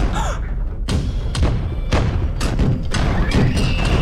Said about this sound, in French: Arrête de taper sur la porte.